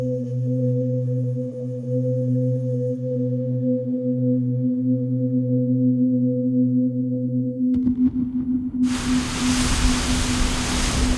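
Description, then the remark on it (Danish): A steady low mechanical drone hums for several seconds, then a loud rush of wind-driven water surges in, waves splashing and churning heavily against sluice gates on the outer side of a coast in strong wind as the water rises. “Bølgerne presser hårdt og slår mod sluseportene.”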